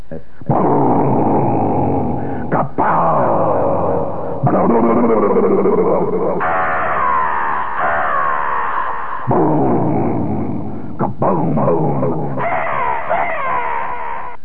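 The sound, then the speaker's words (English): A human voice imitates a giant monster roaring while eating a 30,000-volt, 17-amp electrical transformer: loud, continuous growling and bellowing in several long, strained bursts with brief breaks, harsh throughout. “That was the sound of Gamera eating a 30,000 volt uh,”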